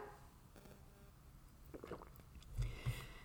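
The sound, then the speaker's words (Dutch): Quiet mouth sounds of someone sipping water, with a couple of soft wet gulps toward the end and no talking. “Nou, ik ga even een slokje water nemen voordat we dit verhaal gaan eh, starten.”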